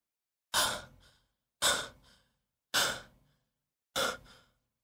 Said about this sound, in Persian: ناگهان مثل برق گرفته ها از جا پرید نفس نفس میزد